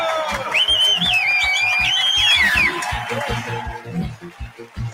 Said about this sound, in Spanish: Muchas gracias por los aplausos espontáneos.